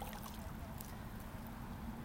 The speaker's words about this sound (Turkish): Evet deniz kenarındayım. Bugün kendimle buluşmaya çıktım.